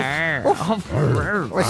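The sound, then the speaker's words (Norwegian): A person imitates a dog barking, with a few strained, yelping barks and growly vocal sounds in quick succession, loud and close. “Hvor langt kan du komme i programmet med bare å bjeffe?”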